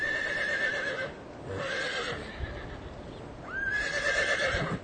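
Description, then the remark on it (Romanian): A horse neighs in long, wavering whinnies, repeated several times, while a horse-drawn sleigh moves along with soft, irregular thuds of hooves beneath, evoking King Ludwig II's winter night sleigh rides through forests under a full moon among snowy mountains. No one speaks. “Melancolic cum era, îi plăcea să facă din noapte zi și să umble noaptea prin păduri, iarna cu Sania.”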